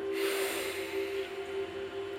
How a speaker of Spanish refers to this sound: Voy a ejemplificarlo para que veas que sí tiene una un sonido nuestra respiración. Entonces al inhalar lo hacemos de esta manera.